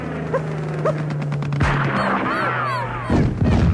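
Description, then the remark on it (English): Several sharp rifle shots crack out in quick succession at an attacking plane over the steady drone of its engine, followed by a louder burst and a whining, warbling tone. “Here, take my rifle.”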